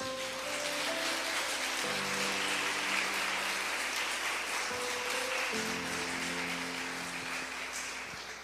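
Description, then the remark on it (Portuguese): An audience applauds the name of Jesus after a Bible reading, loudly and steadily for several seconds, a dense crackling wash of clapping over sustained keyboard chords that shift pitch partway through, fading slightly at the end. “Você pode dar um beijo na sua Bíblia e aplaudir bem forte o nome de Jesus.”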